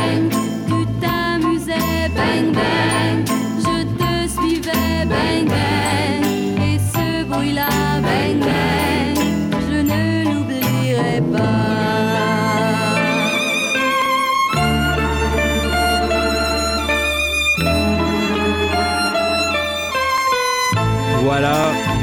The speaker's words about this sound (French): Et je vous propose d'écouter un premier extrait d'une chanson qui a été repris au cinéma par François Ozon.